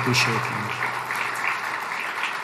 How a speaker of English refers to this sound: And I would ask, uh, there are too many folks to name, but I would ask all of you to just give a round of applause, to uh, acknowledge and thank everybody involved in pulling this event together.